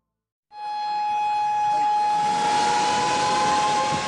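A shark alarm from an automatic buoy: a loud, steady, high-pitched alarm tone starts abruptly and holds unbroken for several seconds, with a rough hissing noise swelling beneath it.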